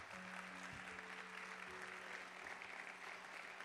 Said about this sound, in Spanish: Si usted lo cree, den un aplauso fuerte al Señor.